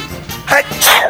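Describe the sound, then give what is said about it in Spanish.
A single loud sneeze: a brief inhaled buildup followed by a sharp, breathy burst, heard alone without talking. “Y, eso no, no, no has investigado de por qué decimos salud cuando alguien estornuda, ¿por qué decimos salud?”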